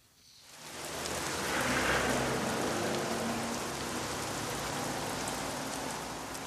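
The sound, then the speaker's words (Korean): Steady rain falling in a dense, hissing wash of droplets, fading in over the first second and then holding at an even level with no voices. “아, 비가 참 시원하게도 오네요.”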